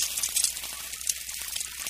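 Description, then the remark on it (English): A steady sizzling hiss with fine crackles, like food frying in a hot pan, runs for a couple of seconds on its own, fairly loud with no voices; a sound effect for the sun cooking roofs in Arizona. “the sun cooks them,”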